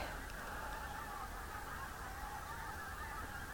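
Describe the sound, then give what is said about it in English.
A dense, continuous chorus of hundreds of geese honking together at night, around two o'clock in the morning in mid-February, steady and overlapping, with no breaks. “and the air is full of geese.”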